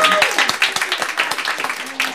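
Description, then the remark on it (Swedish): Applause from a small group, a dense patter of many hands clapping at once, steady, with a few voices faintly mixed in underneath. “Stor applåd.”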